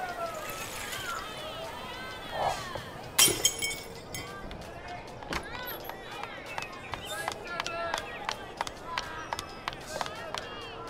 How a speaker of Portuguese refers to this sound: Quem quebrou o vidro da diretoria?